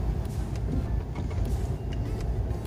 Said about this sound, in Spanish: Bueno, he arrancado en modo eléctrico. La verdad es que se escucha poco, muy poco.